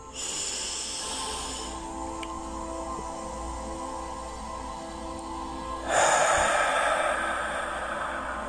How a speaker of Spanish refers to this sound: Vamos a cerrar los ojos, vamos a respirar siete veces profundamente y en cada respiración vamos a sostener cuatro segundos.